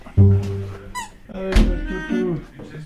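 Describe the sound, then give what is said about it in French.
A folding cinema seat in a troglodyte cave house in Le Toureil, Anjou, thunks down heavily twice, with thin, rising squeaks and creaks from its hinge in between and after each low, solid knock. “C'est un siège de cinéma, ça.”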